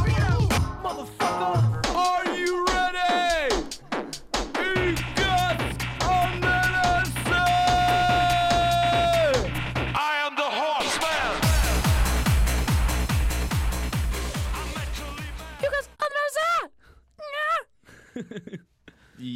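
A rap track built on a sampled vintage rock song plays loud and continuous, with melodic sung vocal lines over a steady, punchy beat before fading and breaking up near the end.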